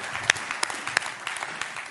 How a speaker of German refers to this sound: Ein Applaus für dich.